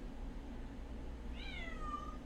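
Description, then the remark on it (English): A cat lets out a single drawn-out, pleading meow that slides downward in pitch, heard somewhat in the background over a steady low hum, with no voices present. “As the cat meows desperately in the background.”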